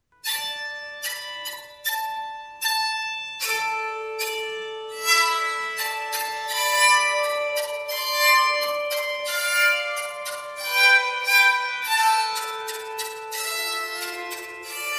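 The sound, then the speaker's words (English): Medieval bowed harp music with sharp, ringing notes that overlap into shimmering, bell-like sustained tones, building into a dense, resonant texture. No voices, just the one instrument, fairly loud. “It was a, uh, a, track called …, and he is actually using the medieval bowed harp.”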